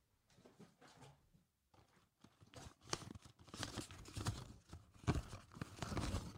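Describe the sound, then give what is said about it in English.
Light paper rustling and crumpling in the background of a classroom during a lesson, a soft crinkle at first that pauses briefly, then grows busier and louder with dense crackling handling for several seconds, no voices. “Now, just some like light paper, just like rumbling in the background like this.”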